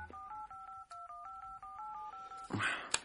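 A rapid run of telephone keypad tones as a phone number is dialed to call again, about a dozen short dual-pitched beeps in quick even succession, followed by a brief burst of hiss and a click.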